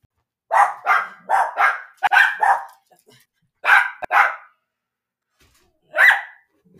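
animal, dogs barking

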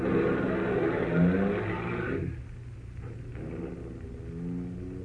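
vehicle, car driving away

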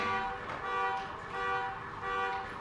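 vehicle, car horn honking outside

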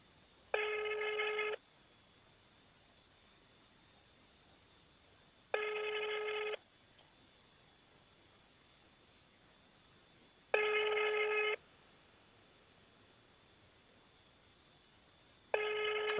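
signal or alarm, telephone call ringing tone

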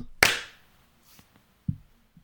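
human body sound, hand clap

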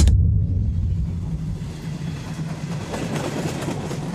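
vehicle, train passing on rails

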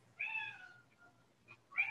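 animal, cat meowing

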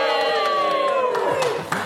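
crowd, crowd cheering

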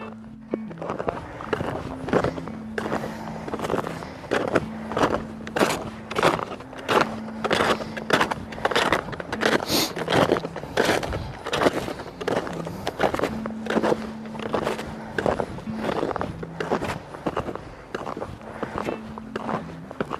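nature, footsteps crunching in snow

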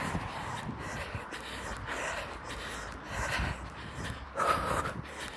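nature, wind blowing into microphone

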